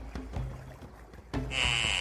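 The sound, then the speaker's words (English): A boat chugs through water, a steady low engine rumble with sloshing and splashes, then a bright, sustained high-pitched tone joins in for the final half second. No one speaks. “Okay, let's steer our big gay boat out of here and into a place where gays are allowed to live freely.”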